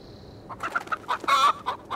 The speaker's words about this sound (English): Fowls clucked and strutted in the stables